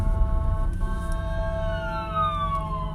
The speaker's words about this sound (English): Literally, I just had a paramedic coming by. I thought it was a police car. I was like, shit, it's a police car. It is not a police car. It is a paramedic coming around me right now.